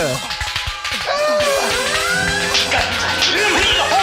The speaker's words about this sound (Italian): Slap Kirk. Schiaffeggia il capitano Kirk di Star Trek. Play. Ah, muovendo il mouse prendete il controllo della mano di Kirk. A destra e a sinistra lo si schiaffeggia. Boom, boom, boom, boom.